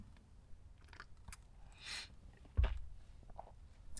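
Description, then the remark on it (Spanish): Quiet mouth noises and a soft slurping sip of coffee, followed by a light clunk like a cup being set down; faint, with no talking. “Pausa para trago de café.”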